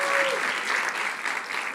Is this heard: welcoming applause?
yes